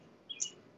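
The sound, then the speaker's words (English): A bird gives a couple of quick, high-pitched chirps in the background, faint and brief, over a quiet background hiss, with one more short chirp right at the end. “Oh no, I'm just laughing because I, I hear the bird in the background.”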